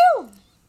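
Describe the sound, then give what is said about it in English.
A single sharp, loud sneeze, with a voiced burst that quickly drops in pitch and fades within half a second, followed by quiet. “No, I sneezed and then I slipped.”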